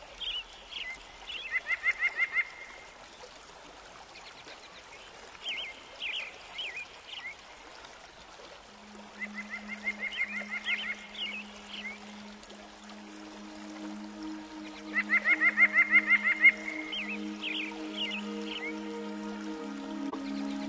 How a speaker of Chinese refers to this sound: 清晨，在空山听鸟语，仿佛听到了神谕。